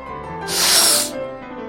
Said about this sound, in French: Ses yeux se remplirent de larmes et sa trompe commença à couler. Il se mit à renifler bruyamment.